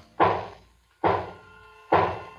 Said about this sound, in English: Boxes shaped like coffins. And I know what they hold. The boxes are filled with holy earth from the chapel beneath the castle. Is the last box being nailed down.